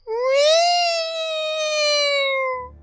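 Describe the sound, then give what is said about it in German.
A single drawn-out, high-pitched scream from a person falling, loud, rising briefly at the start and then held steady for nearly three seconds before cutting off, with nothing else around it. “Man hört mich vermutlich noch, ich wollte schreien währenddessen.”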